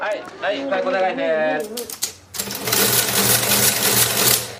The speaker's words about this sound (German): Ganz am Anfang zum Beispiel ein Zählrahmen. Da hören wir japanische Schulkinder, die mit einem japanischen Zählrahmen, mit einem Soroban, lernen rechnen.